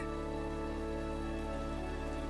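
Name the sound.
rain falling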